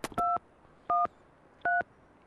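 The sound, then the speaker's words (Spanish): Three short touch-tone telephone beeps, each a steady dual-pitched tone about a fifth of a second long, spaced evenly apart and heard clearly with no talking. “Qué desagrado este teléfono.”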